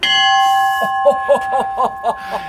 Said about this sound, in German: Wir sind jetzt auf dem Bug der Stefan Janssen und ich entdecke gerade die Glocke. Darf man die Schiffsglocke denn betätigen? Ja, selbstverständlich.